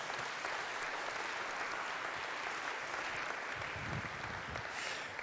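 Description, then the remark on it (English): Steady applause from a church audience, applauding a longtime church member, a dense wash of many hands clapping at an even level throughout, with no voices standing out. “He's had to go home, but why don't you put your hands together for.”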